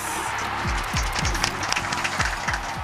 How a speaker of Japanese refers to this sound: 今日久しぶりにスタジオで収録させていただいてるんですけど、ね、みんなの拍手があるといいことですね ありがとうございます